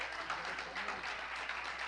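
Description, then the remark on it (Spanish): A church audience applauds steadily for a couple of seconds, a dense, even wash of many hands clapping at once at moderate volume, celebrating news that a member will become a father. “Denle un aplauso.”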